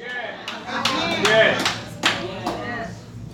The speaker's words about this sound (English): I'm not gonna give it about three hand claps. That's, that's all I heard. I heard three hand claps and two amens.